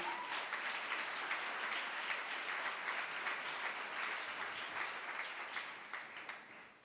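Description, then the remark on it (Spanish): A crowd applauds steadily, a dense wash of many hands clapping at an even, fairly loud level that tapers off slightly toward the end. “Apláudelos y lo voy a aplaudir.”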